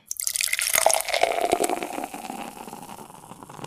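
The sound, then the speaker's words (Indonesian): Tea pours in a steady stream into a cup, splashing brightly at first and then settling into a softer trickle as it fills, as a boy home from school rests with tea in a small village at the edge of a forest. No one speaks. “Dia beristirahat sambil minum teh.”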